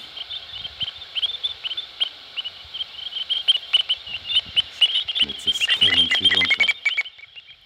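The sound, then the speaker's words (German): A dense stream of high, whistling electronic chirps repeats rapidly and steadily, like a bat detector relaying many calls at once, growing busier and louder toward the end with some low clicks mixed in. “Und da hören wir jetzt die Hufeisennasen mit ihren ganz typischen pfeifenden Rufen.”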